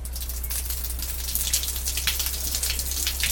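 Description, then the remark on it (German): Shower water runs steadily from a pipe, a dense, hissing spray pattering with slight splashy fluctuations, continuous throughout without any voices. “Ah, und mal gucken, ob heute Wasser fließt.”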